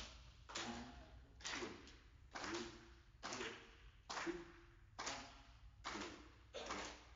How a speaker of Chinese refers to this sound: 好，拍手，我们一起来拍手，来，看着我，一、二。